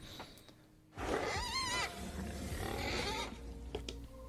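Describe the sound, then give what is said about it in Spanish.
A loud, monstrous pit-creature roar sound effect bursts in suddenly, a harsh, rumbling growl with a warbling, wavering cry in the middle, lasting about two seconds before dropping back to low background rumble. “Y vámonos de una vez con el foso, a ver si suena esta vez, porque la última vez quise que sonara y no sonó.”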